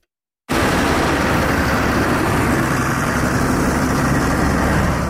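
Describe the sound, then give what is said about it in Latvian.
A dense, continuous rumble of about 150 tractors running together in a protest convoy of Zemgale farmers moving slowly along the roughly 20 km road from Eleja to Jelgava, loud and steady after a brief silent start. No talking. “Zemgales zemnieki ar aptuveni 150 traktoriem šodien devās protesta braucienā maršrutā no graudu kooperatīva Latvijas galvenās mītnes elejā uz Jēlgavu.”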